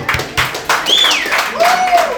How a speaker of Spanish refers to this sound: Bienvenido sea todo el mundo a Fisiología General. Martes 7 de marzo del año 2023. Un aplauso para todo el mundo.